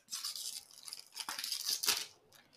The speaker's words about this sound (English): I'm just going to, you know, I'm just going to open them all out and pour them out so I don't have to keep crinkling papers.